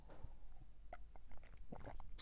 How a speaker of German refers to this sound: Und übrigens, ich habe mir hier so ein bisschen Wasser genommen, dass wenn meine Stimme kratzig wird, dass ich einfach einen Schluck Wasser nehmen kann.